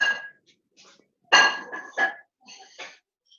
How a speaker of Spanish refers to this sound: Verónica está moviendo sus macetas.